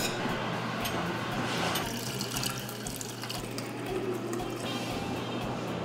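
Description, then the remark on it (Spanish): Water runs and splashes steadily as it is mixed with shredded agave piñas, a constant rushing pour with faint machinery hum underneath, lasting the whole stretch without pause. “Las piñas trituradas se mezclan con agua.”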